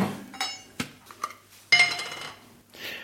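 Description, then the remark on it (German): A knife scrapes and clinks against a glass jar of Mecklenburg sea buckthorn mustard (Sanddornsenf) as a knife-tip of mustard is scooped out: a few sharp metallic taps, then a louder, longer scraping stroke and a softer final scrape, with no talking. “Dann haben wir beide mal eine Messerspitze uns gemopst aus dem Glas.”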